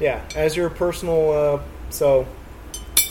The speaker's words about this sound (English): Yes, that's quality audio. That is the sound of a metal pipe tool hitting a ceramic.